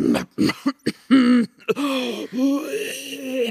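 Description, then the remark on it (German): A voice imitates the throat clearing and coughing heard in a theatre, starting with a few short, sharp hacks and building into longer, strained, rasping coughs, fairly loud. “dann steigert hab, sich das so langsam bis zu so bis zu schlimmen Hustenreizen und ich frage mich wirklich, was Theater mit Husten zu tun hat.”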